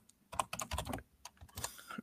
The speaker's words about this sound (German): Deine Tastatur dann, klingt sehr schön. Ja, es ist aber keine besondere. Hm eine Logitech K120.